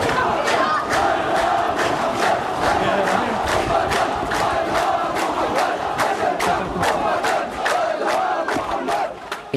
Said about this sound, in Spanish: Calculo que ahora hay el triple de personas y vuelven los cánticos.